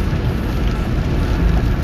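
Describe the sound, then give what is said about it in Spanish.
Steady rain heard from inside a car moving on a highway, a dense wash of patter over a deep, constant road rumble, fairly loud and unbroken, with no voices. “estoy en la carretera el auto está está lloviendo en estos momentos con la lluvia”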